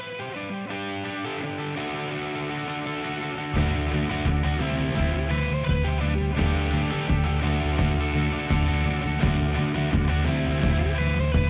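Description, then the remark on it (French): A loud instrumental rock track with heavily distorted guitars opens sparsely, then bursts into full band with driving drums and bass after a few seconds, steady and dense throughout, no voices. “Eh bien, nous allons faire une pause musicale avant de poursuivre notre discussion.”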